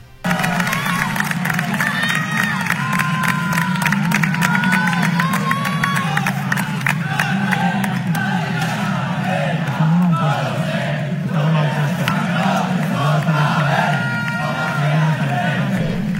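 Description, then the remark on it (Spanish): A packed crowd at the Mallorca stadium roars and cheers for Mallorca, celebrating the team reaching the Copa del Rey final after beating Real Sociedad on penalties. It is a dense, sustained wall of voices, with chants and shouts rising over the steady din for the whole stretch. “Escuchamos parte del ambiente que se vivió ahí en el estadio de Mallorca.”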